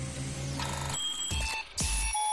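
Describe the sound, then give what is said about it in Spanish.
A quiz-show bell rings out with bright, sustained metallic tones, struck a few times in quick succession with sharp attacks and shimmering high overtones, fairly loud with no talking over it. “Claro, eh, como sabías que iba a sonar la campana, ¿verdad, Antonio?”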